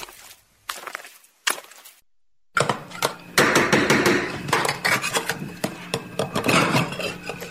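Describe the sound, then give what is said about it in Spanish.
Pots and pans clatter in a busy kitchen, starting with a few separate metallic clanks, then a dense run of clinking and banging dishes and utensils, loud. “¿Es cocinero cocinando gusanos y cerebros?”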